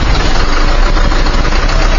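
Heavy diesel engines of a large crane and truck slowly driving onto the road on the east side of the Haihunhou tomb site to transport excavated relics, a steady, low rumbling drone, continuous and fairly loud throughout, with no voices.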